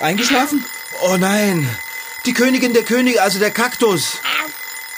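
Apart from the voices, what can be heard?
alarm clock ringing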